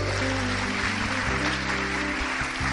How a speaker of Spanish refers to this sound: Aleluya, dale ese aplauso al rey.